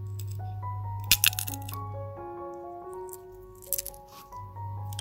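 Two short bursts of crisp crunching and cracking as a person chews sunflower seeds in a room behind a psychiatry building, over a soft, steady musical backdrop with a low hum.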